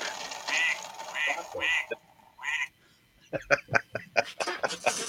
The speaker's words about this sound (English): I heard a duck. Uh, it's duck. It was a duck. Quack.